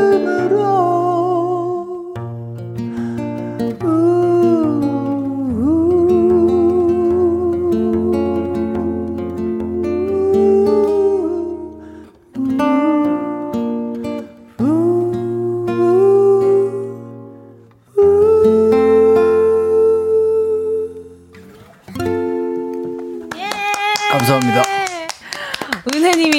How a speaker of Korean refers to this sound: 이게 무슨 라이브야? 이거 CD지 말도 안 돼. 아 라이브였습니다. 아 라이브였습니다.